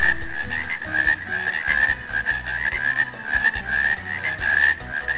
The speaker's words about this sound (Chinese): 其实呀，雌性青蛙从雄性青蛙的叫声中就可以寻找到同类的雄青蛙。只要我们仔细的听一听，也可以从叫声中判断其中的不同。